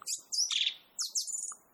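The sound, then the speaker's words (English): A robin chirps in quick, high bursts of bright descending notes, two phrases separated by a short pause, clear with no other sounds. “Look, a robin. It's the first bird I've seen here.”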